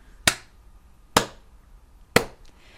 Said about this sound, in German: Da äh, muss ich mal klatschen.